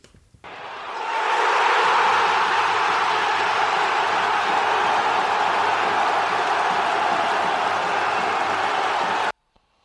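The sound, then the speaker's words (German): A large crowd cheers and roars, swelling up within the first second or two and then holding a dense, steady wall of noise for several seconds before cutting off abruptly. “Und das ist dein Hörer der Woche, Jubel.”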